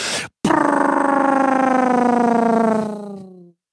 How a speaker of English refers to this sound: So it's a way for your truck to to brake without touching the brakes. The engine brakes. That's what they call it an engine breaker, Jake brake.